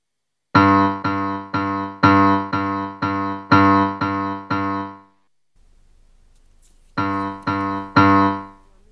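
A musical aptitude test sequence of short, rich, piano-like tones, part of a long test with four parts: three groups of three even beats, a brief pause, then one more group of three to be judged the same as or different from the first three. No talking.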